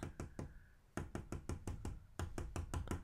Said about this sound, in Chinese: 还有画眉鸟在那个树枝头上跳来跳去，然后他们很喜欢敲那个我的那个玻璃窗哦，然后就发出这样